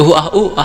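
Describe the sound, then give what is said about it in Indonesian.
A voice imitates moaning: a quick, rhythmic run of three or four short, breathy vocal groans, loud, lasting under a second. “dari mana atau mungkin tiga temanku ini menonton ini film porno keras keras gitu”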